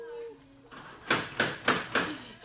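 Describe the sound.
A brief voice at the start, then four loud, evenly spaced knocks on a door in quick succession.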